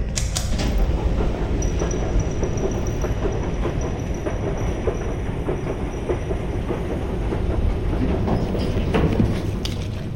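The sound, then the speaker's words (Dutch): An escalator running downward: a steady, loud mechanical rumble with a dense, rhythmic clacking that continues evenly throughout, with no voices. “Oké, we pakken de roltrap naar beneden.”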